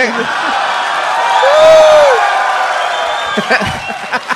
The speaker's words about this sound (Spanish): Le están aplaudiendo de la nada, están locos o qué, están aplaudiendo a un espacio vacío.